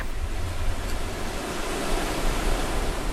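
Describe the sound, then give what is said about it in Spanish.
Steady roar of ocean surf washing against the shore, a dense continuous hiss of water that swells slightly toward the end, fairly loud, with no voices. “Justo donde termina la tierra y empieza el mar.”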